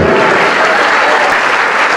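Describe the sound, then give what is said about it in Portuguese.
A church audience applauds steadily, a dense, even wash of many hands clapping at once, loud and sustained for the whole stretch with no voices standing out. “Vamos aplaudir, igreja, vamos aplaudir.”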